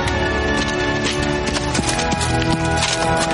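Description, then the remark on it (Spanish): Hooves clip-clop steadily amid a dense, busy backdrop of other noise, the footfalls continuous with a loose rhythm, as several horses carrying knights regroup on a meadow. “Sobre la pradera, los caballeros se reagrupan despojándose de sus cascos y montados sobre sus caballos todos, excepto Lanzarote, que camina a pie sudoroso por el suelo.”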